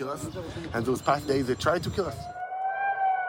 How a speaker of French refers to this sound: Dans le ciel de Tel Aviv, les sirènes retentissent, comme dans le nord et le sud d'Israël.